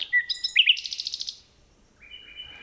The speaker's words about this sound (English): Phil Riddett recorded these two nightingales in a forest near Kent, England.